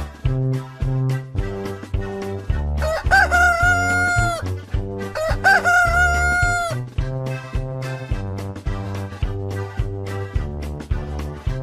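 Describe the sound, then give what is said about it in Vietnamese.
A rooster crows twice, each long rising-and-falling call standing out over a bouncy, rhythmic music track that plays throughout. “Chúng mình nhớ dậy sớm để gà trống vui các em nhé.”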